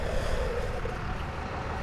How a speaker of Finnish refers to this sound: Eli se on tämmönen vihreä laite tuossa traktorin perässä ja se ikään kuin syö tätä heinää ja kuristaa sen tämmöiseksi pyöreäksi paaliksi.